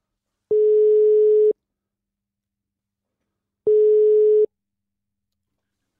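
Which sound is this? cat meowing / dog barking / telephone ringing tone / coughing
telephone ringing tone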